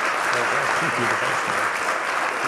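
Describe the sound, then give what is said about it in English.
A crowd claps steadily for the full stretch, a dense, even wash of hands at constant loudness, with a man's voice briefly audible underneath partway through. “And, uh, you want to just thank him with a round of applause?”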